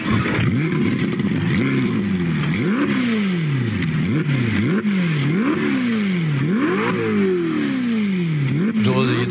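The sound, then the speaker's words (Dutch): A 620 hp Ferrari V8 engine revs hard, its pitch sweeping up and dropping back again and again in a series of quick throttle blips with a steady rumble underneath. “Ik vind het wel echt ontzettend mooi, Ferrari. V8, 620 pk.”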